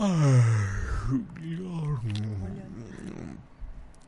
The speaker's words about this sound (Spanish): Vamos ahora a la respiración para eliminar todo lo que es la angustia, la preocupación, este, el estrés, la tensión, que van, afectan directamente al vaso páncreas y al estómago. ¿sí? Y es la respiración de bostezo.